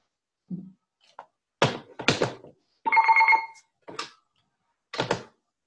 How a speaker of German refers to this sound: Jetzt geht mein Telefon. Kein Problem. Ich rufe gleich zurück, ja?